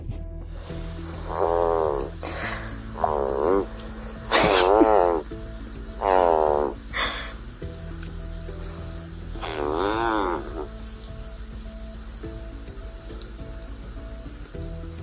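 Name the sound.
frogs croaking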